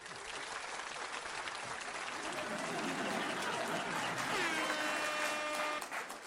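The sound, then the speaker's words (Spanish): A burst of dense crowd applause, many hands clapping in a steady, loud wash for about six seconds, with a few brief tonal cheers rising over it before it tapers off. “como a quién le dedico ese aplauso?”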